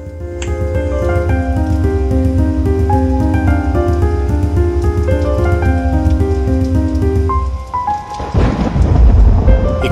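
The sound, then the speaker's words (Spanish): Steady, loud rain pours continuously under sustained low tones, with a deeper rumbling surge near the end; no one speaks. “la lluvia de fondo la historia de Nora, que le mandamos un beso y agradecemos, es como que se torna especial, ¿no?”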